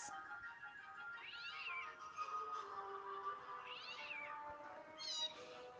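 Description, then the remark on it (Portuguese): Two cats meow repeatedly in rising, drawn-out cries, a few overlapping calls spread across several seconds, clear with no one talking. “Quando de repente entrou uma pessoa com dois gatos.”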